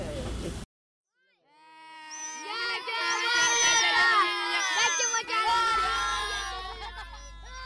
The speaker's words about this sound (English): Everywhere you go in the refugee camps, there is the unmistakable sound of children.